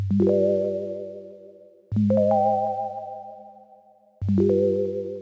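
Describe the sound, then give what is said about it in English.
Three sustained synth chords, simple seventh chords with the last one somewhat diminished, played on a basic sine wave synth with a bit of white noise: pure, sine-like tones and a soft hiss, each struck with a sharp attack and slowly decaying before the next one enters, no voices. “So we've got that just on a basic kind of sine wave with a bit of white noise synth”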